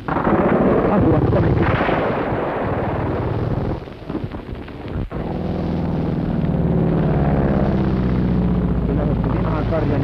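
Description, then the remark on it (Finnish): Two dark fighter planes roar in low and loud, strafing toward a car on the road with machine-gun fire, rattling bursts breaking through the heavy engine drone, which briefly dips before surging back overhead. “Ampuvat juuri meidän kotiautomme kohti, jatkavat ammutaan KKlla.”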